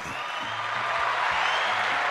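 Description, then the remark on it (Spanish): Steady, dense applause for Charlie Muñiz, 'el Colorado Zumba', fills the whole stretch at an even, fairly loud level, with a low, stepping musical tone running faintly beneath it. No one speaks. “Merecen un aplauso a Charlie Muñiz, el Colorado Zumba.”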